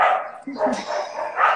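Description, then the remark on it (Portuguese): A dog barks repeatedly in short bursts, the yaps mixing with someone talking over them. “A gente tem um cachorro latindo aí, não é?”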